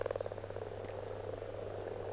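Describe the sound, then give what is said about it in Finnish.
A dense chorus of breeding male frogs croaking together at a spawning pond, a continuous rapid pulsing drone with overlapping calls, steady, with no voices. “Kun lisääntymiskykyiset sammakokoirat loikkivat kutupaikoille ja alkavat kurnuttaa, se ei jää huomaamatta.”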